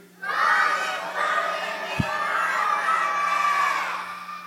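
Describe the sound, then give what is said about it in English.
A group of children shouts together on a count of three, at half effort in a shouting contest, in one sustained, loud collective yell lasting about four seconds, a crowd-like roar with no individual words, rising abruptly and holding steady until it fades. “That wasn't even the loud one. You hear how loud that was?”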